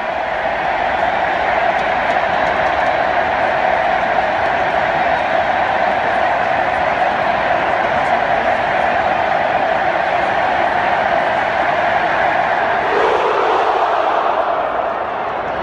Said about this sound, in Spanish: Así suena el grito en el estadio.